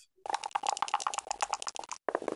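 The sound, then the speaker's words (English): Dice rattling hard inside a cup, a dense run of rapid clicks and clatters for about two seconds, a brief pause, then another quick burst of rattling. “So I'm going to give these dice a good shake”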